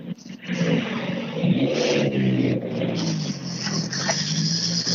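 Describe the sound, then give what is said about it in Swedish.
A rally car accelerates past with a loud, raspy engine roar, its revs climbing and dipping through gear changes for several seconds, with a faint murmur of voices underneath. “Här sitter alla hjul på rätt plats.”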